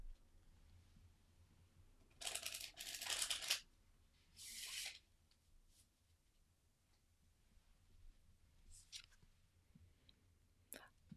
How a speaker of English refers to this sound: So today we're using the Anima Mundi tarot deck, and I'm going to shuffle the deck and draw a card. And I'm going to step away from the mic to shuffle it so that it's not too loud.